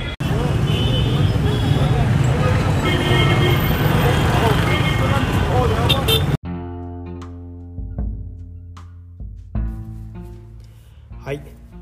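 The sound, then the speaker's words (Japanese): Busy city traffic in Tahrir Square, a roundabout intersection, on a weekday, January 25, fills the first half with a steady, dense roar of many passing cars, then cuts off abruptly, giving way to quieter, tonal sounds. “今日1月25日は平日となって普段通りの暮らしが続いています広場も、えー、多くの車が行き交い、えー、喧騒に包まれています”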